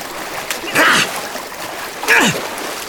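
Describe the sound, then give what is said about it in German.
Two bursts of water splashing, about a second apart, each a short sloshing surge over a steady watery background, moderately loud. “Ich kann mich nicht mehr lange über Wasser halten.”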